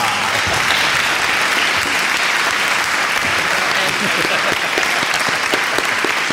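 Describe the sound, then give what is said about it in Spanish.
Sustained applause from a crowd fills the whole stretch, dense steady clapping at a loud, even level without pause or build. “Son unos aplausos muy merecidos, gracias.”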